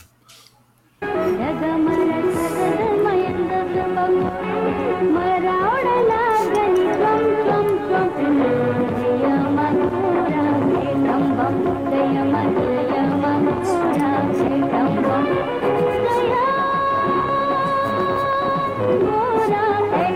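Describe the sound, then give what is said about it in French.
After a brief quiet moment, a loud, continuous stretch of upbeat dance music starts and plays steadily to the end, with a shift in melody partway through. “je vous propose, pour vous mettre dans cette ambiance justement un petit peu dansante, euh, que Martin diffuse hein, cet extrait de musique”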